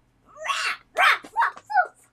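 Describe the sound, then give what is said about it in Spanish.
A voice imitates a dog barking, giving four short, loud woofs in quick succession, otherwise quiet. “¿Cómo hace el perro?”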